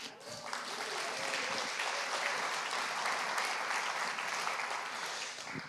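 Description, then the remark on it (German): An audience claps steadily for several seconds, a dense, even wash of many hands with no voices standing out, fading slightly at the end. “Er ist übrigens frisch Vater geworden, da müssen wir fast mal klatschen.”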